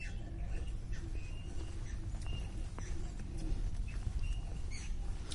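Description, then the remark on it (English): Faint, repeated high-pitched squeaks from hand-wheel exercise equipment as an older man winds his hands round, irregular, over a steady outdoor rumble with scattered soft patter. “Well, oh, that little squeaky sound that you might be able to hear is actually uh, an older gentleman here doing one of those exercises where you wind your hands round.”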